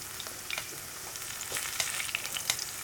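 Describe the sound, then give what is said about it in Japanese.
Garlic sizzles steadily in a frying pan just before the heat is turned down to low to slowly draw out its aroma, a continuous crackling hiss dotted with sharp little pops, with no voices. “こうジュージュージュージュー言ってきたらここで弱火にします、はい、これでじっくり香りをどんどん出していく感じですね”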